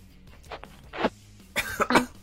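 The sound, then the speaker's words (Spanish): A person coughs in several harsh bursts after choking on ginger: a couple of short coughs first, then a louder, rougher cluster near the end, with no talking in between. “atoré con el jengibre.”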